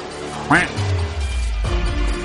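A single sharp, nasal duck quack rings out, then fades into a low, steady rumble of background noise.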